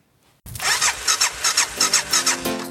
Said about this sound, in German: deswegen eine sehr, sehr schöne Radiostimme hat und den spielen mhm. wir jetzt mal ein, unseren literarischen äh, Gespann Jingle.